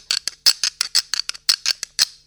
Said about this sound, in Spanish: y con la suerte de que llego a Pontevedra y unas cantareiras galegas que recuperaron músicas de su tierra eh, se despedían tocando en vivo cinco mujeres y una de ellas tocaba estas conchas de mar